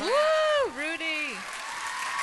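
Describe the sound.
Steady audience applause fills the whole stretch, with a loud, drawn-out voice whooping or shouting over the clapping near the start.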